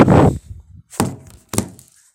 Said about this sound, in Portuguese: Deixa eu pegar minha garrafa d'água aqui e beber um pouco, um gole d'água.